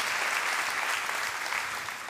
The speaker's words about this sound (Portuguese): Dá uma salva de palmas ao Senhor, você pode fazer isso em nome de Jesus.